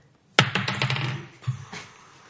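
A metal ring worn by a man clinks sharply against a hard surface, a quick cluster of bright rattling taps followed by a second tap and fading ring, fairly loud with no talking.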